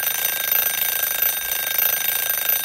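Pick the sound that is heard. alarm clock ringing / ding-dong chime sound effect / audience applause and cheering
alarm clock ringing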